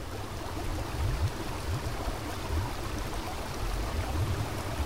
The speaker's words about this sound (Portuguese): Os sons do rio também são infinitos em sua variedade.